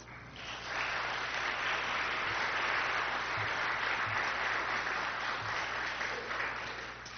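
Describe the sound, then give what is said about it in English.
An audience at a church worship service claps together for the youth who put the service together, in a steady, sustained round of applause lasting several seconds, a dense wash of many hands at fairly even loudness before tapering slightly at the end. “Uh, I wouldn't normally do it in a worship service, but can we please give them a quick round of applause?”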